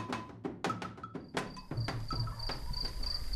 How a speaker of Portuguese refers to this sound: Por agora são os grilos e o dia quase em lusco-fusco quando o carro da Antena 1 fica de frente para o portão amarelo.